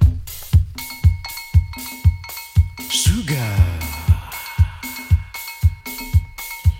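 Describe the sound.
A Cameroonian pop song plays loud, driven by a steady, punchy bass-drum beat under sustained synth tones, with a brief sliding, warbling flourish midway and a short sung word.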